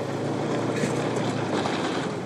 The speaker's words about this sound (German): Dafür verlassen wir die Forschungsstation und steigen auf einen Motorschlitten.